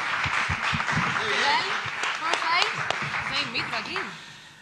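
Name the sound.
audience applause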